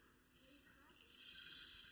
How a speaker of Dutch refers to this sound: Ja, dat klinkt als regen.